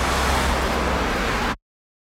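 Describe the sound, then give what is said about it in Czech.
Steady, dense roar of road traffic at the bus station in Plzeň, vehicles rumbling past for about a second and a half before the sound cuts off abruptly into silence. “Teď začneme na autobusovém nádraží a pak budeme pokračovat po Domaždický ulici”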